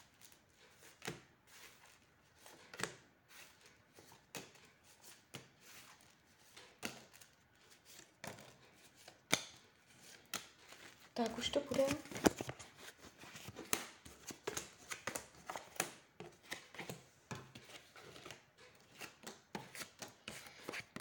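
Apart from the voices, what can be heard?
shuffling cards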